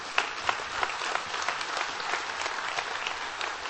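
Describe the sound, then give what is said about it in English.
An audience applauds steadily, a dense wash of many hands clapping at a fairly even level, with a few sharper individual claps standing out near the start. “Now it's time to applaud.”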